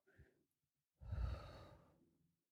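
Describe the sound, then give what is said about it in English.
A brief, soft intake of breath, a short pause, then a long, audible exhale like a deep sigh, breathy, fading out over about a second. No one speaks. “just take a deep breath. And as you inhale, feel the air going into your lungs and be reminded that breathing is required for life.”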